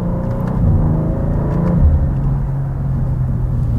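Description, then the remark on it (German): The exhaust of an M2 sports car burbles as the driver lifts off the throttle: a deep, loud engine rumble broken by a few irregular pops and crackles, with no voices. “Beim Runterschalten oder vom Gas gehen gibt es so ein Auspuffbrabbeln.”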